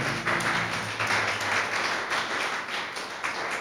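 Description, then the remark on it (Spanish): A crowd applauds God steadily, a dense wash of many hands clapping at once, fairly loud and sustained throughout with no voices on top. “Podemos aplaudirle ¿eh?”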